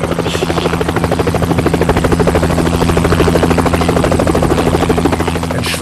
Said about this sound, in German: zweiter Helikopter setzte zur Landung auf der Wiese neben dem Schuhkorb. Seine Motorblätter wehten nonchalant Röcke hoch und gaben den Blick frei auf eine Vielzahl von farbenfrohen Höschen.